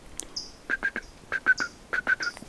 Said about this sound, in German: Ein sehr verrückter kleiner Vogel. So ein bisschen Zaunkönig, hatte ich schon gesagt. Schnabel immer so leicht nach oben. Und dann hat er so ein ganz buntes Gesicht.